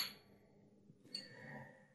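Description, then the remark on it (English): Glasses clink together twice in a toast: a bright ringing chime at the start, then a second clear clink about a second later that rings on and slowly fades. Fairly soft, no talking. “We got to toast him. Cheers to you people.”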